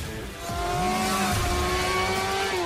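Racing cars accelerate hard, engines revving with rising and falling pitch as gears shift, a loud continuous roar with a steady high whine running throughout.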